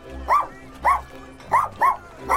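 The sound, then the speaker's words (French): A toy spaniel barks five times in quick, uneven succession, short high-pitched yaps that sound fairly loud, with no voices around them. “Son épagneul nain, qui dormait à ses pieds, se lève à son tour et court derrière elle.”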